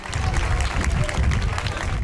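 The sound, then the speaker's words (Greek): A crowd at a parade applauds Special Olympics athletes steadily, with dense, continuous clapping that stays loud for the whole stretch, with a faint murmur of voices mixed into the ovation. “Το πιο θερμό χειροκρότημα έλαβαν οι αθλητέ των Special Olympics.”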